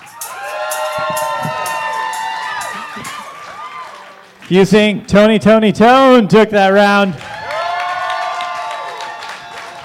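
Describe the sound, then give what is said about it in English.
A crowd cheers and applauds loudly for a few seconds, then a man speaks over the fading noise before another steady burst of clapping and cheering rises again as the crowd votes on whether the bosses took the round. “All right, give it up if you think the bosses took that round.”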